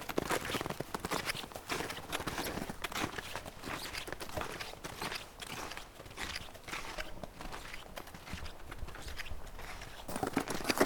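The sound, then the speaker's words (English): Steady footsteps crunch along a forest trail heading down toward the Ottertail River, a continuous rhythmic series of scuffing, gritty steps with no voices, keeping an even walking pace throughout. “so we're gonna head down this trail to uh, the Ottertail River.”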